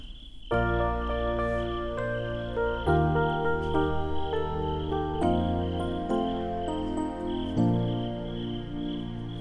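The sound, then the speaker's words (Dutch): The opening of a song: a steady, high chorus of crickets chirps throughout, quickly joined by loud sustained musical chords that change every couple of seconds and play over the insect drone. “lied over dat kind wat, wat in Frankrijk, wat, wat het, het begint ook met krekeltjes.”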